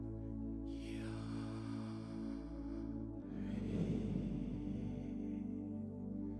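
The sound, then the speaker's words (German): A slow, deliberate breath is drawn in and then let out with a soft rushing exhale over a steady low hum, with no talking. “Ich kriege Gänsehaut und du atmest.”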